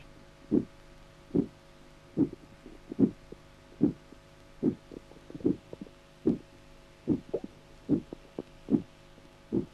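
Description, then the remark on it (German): A loud systolic bruit heard through a stethoscope over the left lower abdominal quadrant of a 70-year-old man with diffuse high-grade stenosis of the left pelvic arteries: about a dozen short whooshing pulses repeating steadily, roughly one every 0.8 seconds, over a low background hum with no talking. “Tonabnahme linker unterer Abdominalquadrant. Lautes systolisches Stenosegeräusch.”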